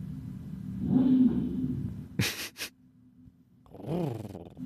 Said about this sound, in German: das, das ist die Klimaanlage.